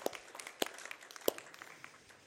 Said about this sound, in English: Thank you very much. Give him a round of applause, please, brothers and sisters.